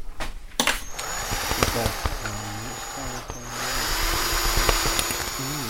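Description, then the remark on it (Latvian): A power drill drives a screw in several bursts to fix a smoke detector to the ceiling in a corridor between the kitchen and rooms, its motor whining up and down in pitch with brief pauses, loud and steady throughout with no voices over it. “Dūmu detektoru pieskrūvējam pie griestiem.”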